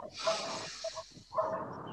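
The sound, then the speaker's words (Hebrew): A dog barks a few times in the background, faint and short, behind a steady breathy hiss like a long slow exhale, during a guided breathing exercise. “להכניס, להחזיק, להרגיש את היציבות של כפות הרגליים בעוד הכלב נובח שם ברקע, ולהוציא.”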